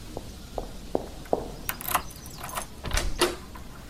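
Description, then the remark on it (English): Keys jingle in a bright metallic rattle, followed by a few clicks and clunks as a lock turns and a door is unlatched, with no one speaking. “Ah, let me get the keys.”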